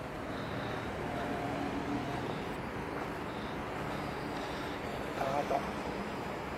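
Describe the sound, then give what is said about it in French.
A steady, loud whirring buzz from a small multi-rotor Bebop Drone quadcopter in flight, continuous for several seconds with a faint high whine above a broad rushing noise, plus a brief tonal flutter near the end. “C'est bruyant, hein C'est très bruyant. C'est très rapide.”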